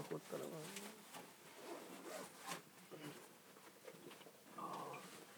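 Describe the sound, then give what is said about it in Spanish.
A zipper on a guitar case being pulled open in several scratchy, uneven bursts, with people talking over it. “¿Y esta weá tiene cierre o tiene.?”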